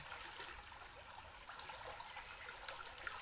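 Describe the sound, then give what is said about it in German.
A steady babbling stream, water splashing and trickling continuously with small bright gurgles, alone with no voices. “Und es kann sein, dass dieses Plätschern nun noch intensiver für dich wird.”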